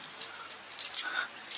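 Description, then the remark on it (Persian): More than a thousand gold coins jingle in a bag, a quick run of bright metallic clinks and rattles spread over a second or so, fairly quiet, with no voices. “در این کیسه بیش از هزار سکه طلاست”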